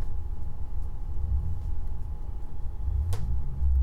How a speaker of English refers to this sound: Up not this car revving up. Girl, all in my mic. Hold on.